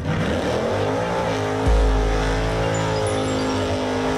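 A loud race car engine revs and roars, its pitch climbing with a deep rumbling surge midway before holding a steady, high-revving whine. No voices are heard.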